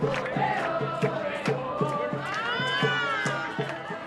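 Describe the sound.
A dense crowd of pilgrims from many countries cheers loudly and continuously at a celebration with Pope Francis, voices swelling together with a steady rhythmic pulse like chanting or clapping about twice per second, a roaring mass of sound.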